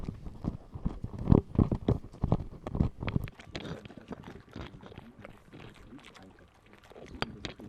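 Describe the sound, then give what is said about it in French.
A dog bites into a bread roll with irregular, loud crunching and smacking bursts, then settles into quieter, continuous wet licking and slurping sounds. “wir gerade hören, sind die Beiß- und Lutschgeräusche, die Beiß- und Leckgeräusche des Hundes.”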